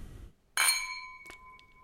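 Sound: glasses clinking together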